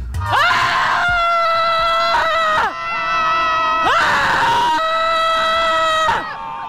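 A group of people scream together on the beach at Scheveningen, jaws wide open and arms waving, loud sustained high-pitched voices that surge in waves with brief dips between, the cries rising and falling in pitch.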